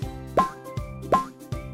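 A cartoonish hopping sound effect of a frog wallet jumping back into the mouth of a crocodile handbag: about five bouncy, pitched plops in a steady rhythm, alternating stronger and softer, with no voices.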